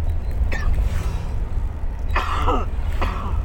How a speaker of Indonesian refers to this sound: kan batuk